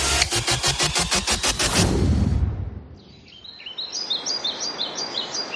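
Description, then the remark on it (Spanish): After a loud, pulsing rumble fades out, a chorus of high calls from many birds takes over in Doñana, among white sand and shrubs, with a heron flying past, and repeated bright chirps and twitters continuing steadily in the background over a soft outdoor hush. “aquí nos encontramos arena blanca, arbustos, muchísimas aves de fondo.”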